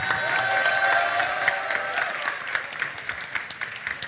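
An audience breaks into sustained applause with cheering for the semi-finalists of a pitch event, loud and dense at first with some whistling, then thinning into scattered claps over about four seconds.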